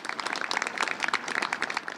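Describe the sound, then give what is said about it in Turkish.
Steady applause from a crowd at a ceremony at Anıtkabir, a dense patter of many hands clapping at once, echoing in the courtyard, moderately quiet, continuing evenly with no voices standing out; the applause is for President Erdoğan as he goes up to the mausoleum and on to the Misak-ı Milli Tower. “bayramlarda atılan sloganlar yoktu bu kez ama Cumhurbaşkanı mozoleye çıkarken de Misak-ı Milli Kulesi'ne geçerken de alkışlar devam etti.”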